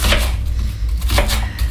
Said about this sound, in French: Je suis en train de couper les oignons justement.